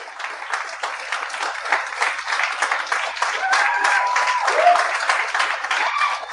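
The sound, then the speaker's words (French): An audience applauds guests connected with the Rockfest festival, a dense wash of many hands clapping at an even level for several seconds, with faint voices and a whistle-like tone briefly mixed in. “J'aimerais, j'aimerais qu'on leur donne une bonne main d'applaudissement.”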